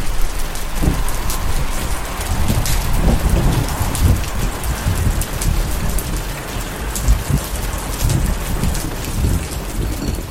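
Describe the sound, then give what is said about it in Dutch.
Heavy storm rain pours steadily, a dense hiss of drops pattering on surfaces, while low rolls of thunder rumble underneath throughout. No voices are present. “It's quite an effort to get there through this storm, typte ik nog.”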